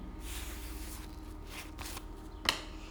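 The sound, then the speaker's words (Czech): Cards being shuffled and laid down during a card reading: a run of soft papery riffling swishes, then a sharp snap as a card lands, with faint shuffling continuing. No voices. “Padají karty rodinného štěstí, rodina.”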